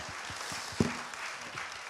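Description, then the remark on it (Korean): A crowd applauds steadily for about two seconds, a dense wash of many hands clapping at once, even in loudness, with one sharper thump near the middle. “박수 한번 주세요.”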